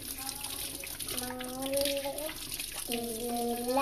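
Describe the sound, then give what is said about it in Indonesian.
Steady water runs from a tap, a continuous hiss as hands are rinsed clean under the running stream, while a voice speaks or hums in drawn-out tones over it. “sampai bersih di air mengalir dibilas sampai bersih sudah selesai”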